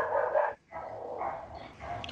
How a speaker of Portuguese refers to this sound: Ó, oh, eu tô, eu tô ouvindo só cachorro no momento aqui. O negócio. Isso aí é culpa minha, sempre acontece. Já peço desculpas para os cachorros resolvem latir só essa hora.